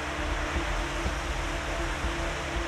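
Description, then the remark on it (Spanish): A steady, wide wash of surf noise rolls on without pause, the soft, continuous roar of ocean waves breaking along a beach with cliffs alongside, heard alone with no voices. “Mientras que el agua sigue moviéndose incansablemente”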